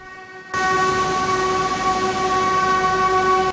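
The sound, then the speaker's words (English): The 408 Puyuma Express train in Taiwan passes the site of a recent crash at 9:28 in the morning and sounds its horn for 30 seconds in mourning: one long, loud, steady blast that starts abruptly after a brief rumble and holds without a break. No one speaks. “As it passes the site of last Friday's crash, the 408 Puyuma Express train sounds its horn for 30 seconds.”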